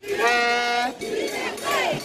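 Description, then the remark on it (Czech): A protest crowd at demonstrations across France chants 'freedom' in unison: a loud, long held shout followed by two shorter rising calls from many voices, filling the two seconds without pause. “To bylo klíčové slovo, které zaznívalo při protestech po celé Francii, v Montpellier, Štrasburku, v Po i v Paříži.”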